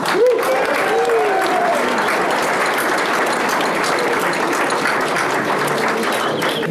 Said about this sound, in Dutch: Graag een applaus voor